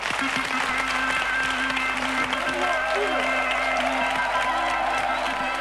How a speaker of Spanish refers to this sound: Un aplauso.